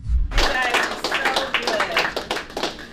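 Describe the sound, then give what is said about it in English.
Several people clap together in a steady, dense burst of sharp, irregular hand claps lasting a few seconds, fairly loud throughout, with faint voices mixed in underneath. “Just clapping.”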